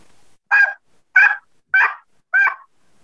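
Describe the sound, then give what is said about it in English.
Four evenly spaced two-tone turkey yelps made on a mouth call, each a clear note going high and low, fairly loud with short silences between them. “you want a true yelp, a true two tone yelp.”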